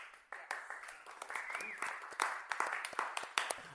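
An applause sound effect played during a show: many hands clapping in a dense, crackling patter at moderate loudness, continuing for a few seconds with sharper individual claps standing out toward the end.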